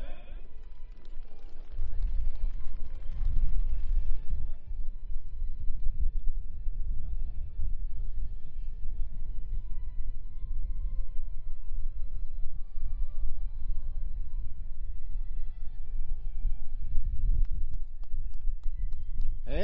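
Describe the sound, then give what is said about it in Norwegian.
A crowd applauds at a prize announcement for the fifth-place finisher, for about twenty seconds, a dense and steady patter of many hands clapping at an even loudness, with a few voices mixed in underneath. “En stor applaus.”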